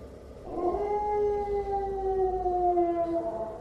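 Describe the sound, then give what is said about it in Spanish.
At night, a dog lets out one long, steady howl that slowly sinks in pitch over a few seconds, clear, with faint background noise and no distinct barks. “En ese momento uno de los perros comenzó a ladrar y el otro a aullar simultáneamente.”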